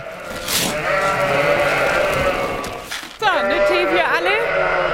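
Lambs bleating repeatedly during lambing season on the island of Föhr, Germany, their wavering cries overlapping in a noisy chorus, with one loud, quavering bleat standing out in the last couple of seconds.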